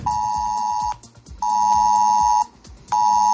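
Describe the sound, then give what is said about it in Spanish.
A mobile phone emergency alert from a public warning system blares loudly in three long, steady high-pitched tone bursts, each about a second, separated by short pauses, over a faint rhythmic background. “Y a partir de hoy, Ojo que una alarma como esta puede sonar en tu teléfono móvil.”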